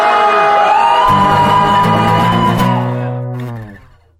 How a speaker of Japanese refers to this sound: あんなに人って綺麗にざわめけるんですね。ざわざわの理想形がそこにありましたけども